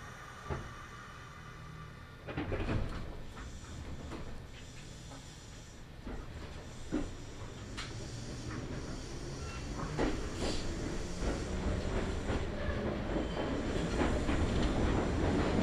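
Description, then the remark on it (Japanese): A local train bound for Shinmachi pulls away from platform 1 of a station, next stop Chiyozaki, a steady low rumble and hiss building gradually, with scattered metallic clanks and clicks from the cars as it gathers speed. “一番乗り場から新町行き普通列車が発車します。”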